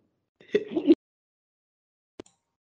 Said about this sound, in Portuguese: Ah, peraí que eu vou espirrar.